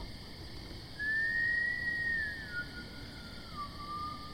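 A person whistles faintly outdoors on a cold night: one long held note that dips at the end, then a shorter, lower whistle, over a steady high-pitched background drone with no one talking.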